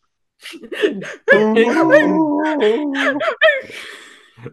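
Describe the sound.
A voice imitates a dinosaur gently weeping into someone's shoulder after being grabbed: whiny, wavering whimpers and sobbing cries that rise and fall over a few seconds, with no words spoken.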